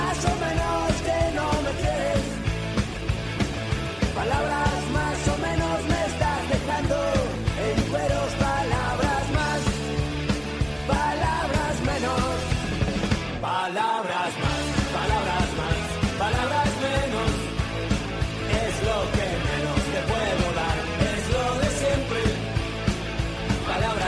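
A loud, full instrumental radio programme theme tune plays continuously with steady rhythm and bright harmonic layers, briefly cutting out for a moment near the middle before resuming.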